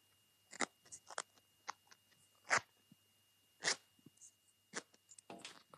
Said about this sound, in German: Hat man gehört den Reißverschluss? Ja, man hat ihn gehört.